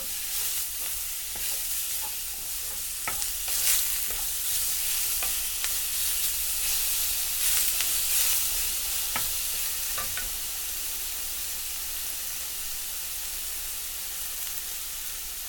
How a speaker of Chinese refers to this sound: 锅中倒入四大汤匙的油，加入红咖喱香料两大匙，炒到红油出来。